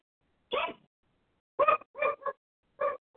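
dog barking at someone

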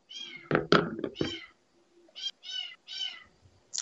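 kitten meowing

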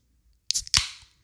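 beer can being opened

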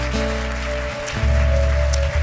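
audience applauding

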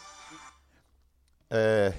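mobile phone ringing

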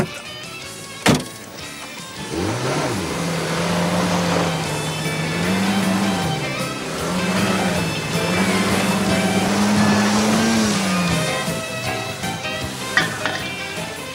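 car engine revving

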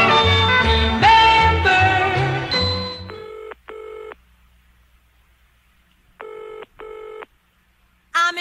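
telephone dialing tones

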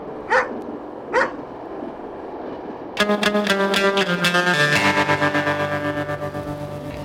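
dog barking

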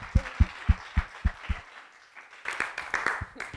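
audience round of applause

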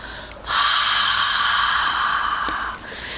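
deep breath

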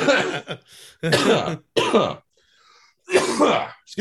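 coughing and throat clearing

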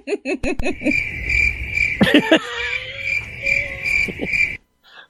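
crickets chirping

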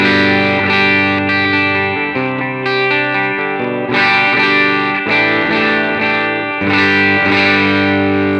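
electric guitar

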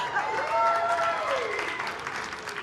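audience clapping

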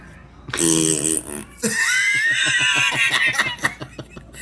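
fart

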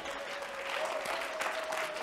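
audience applauding

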